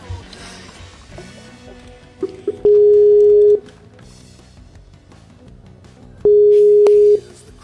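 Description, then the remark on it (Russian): Two loud, steady electronic tones, each about a second long and separated by a pause, the calling tone of a Skype call being placed again, over a faint, busy background. “Э, скайп перезвоню.”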